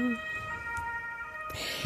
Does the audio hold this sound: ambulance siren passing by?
yes